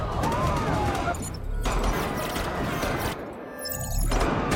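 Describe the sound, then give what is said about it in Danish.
Dense, loud gunfire from a film scene in which many people are shot crackles almost without pause, a chaotic barrage of overlapping shots and crashes, with a brief high whine near the end and indistinct voices buried in the noise. “virkelig mange, der bliver skudt her.”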